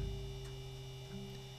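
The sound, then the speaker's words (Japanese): A steady electrical hum from an ice maker drones on continuously, low and even, with a faint tonal whine above it and no talking. “ち音がバックで流れてるかもわからんけど、これね、製氷機の音です。”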